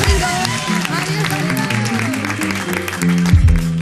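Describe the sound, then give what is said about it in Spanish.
A crowd applauds steadily for a few seconds, dense clapping blending with scattered cheers and voices, while music with a deep bass line plays underneath. “Venga, fuerte aplauso y nos vemos el próximo”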